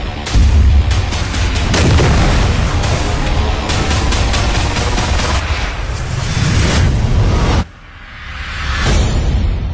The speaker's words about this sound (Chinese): 飞车、爆炸、追击，作为一部标准的动作犯罪类型片，在《使徒行者》首款预告中，你可以发现啊，动作场面酷炫、炸裂、酣畅淋漓。